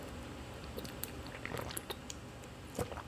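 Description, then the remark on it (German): Quiet gulps of normal still water taken from a 0.5-litre bottle, a few swallows with soft wet mouth clicks in between, no talking. “Ich ähm, bemühe mich da auch stets und versuche, was habe ich denn hier, 0,5 während des Podcasts auszutrinken. Das muss zu schaffen sein. Normales, stilles Wasser. Prost!”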